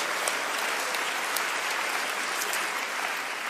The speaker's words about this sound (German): Komm, wir geben Jesus mal einen mächtigen Applaus.